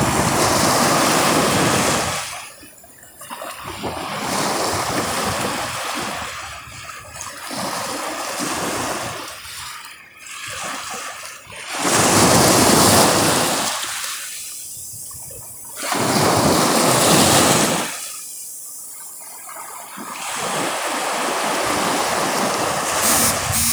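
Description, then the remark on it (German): Ocean waves rush and break, surging loudly in repeated swells with brief lulls of quieter backwash between them, and no voices over the roar. “Ich lasse das Meer jetzt noch ein bisschen rauschen und rieche und spüre und fühle das Wasser.”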